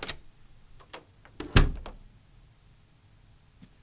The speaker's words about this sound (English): as she closed the bedroom door behind her